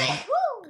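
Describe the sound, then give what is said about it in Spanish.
A single loud sneeze: a sharp breathy burst followed by a short voiced cry that rises and falls before trailing away. “Ay, hay capítulos con mocos, hay capítulos con estornudos.”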